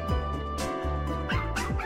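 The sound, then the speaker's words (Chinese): Wangwang, a seven-year-old male Maltese who sings the mid-to-low part in a three-dog singing group, lets out three or so short, firm barks in a mid-to-low pitch, spaced irregularly over a steady tonal background hum. “三只都是公狗，第一只叫旺旺，七岁马尔济斯犬，它是负责中低音的，音色很扎实。”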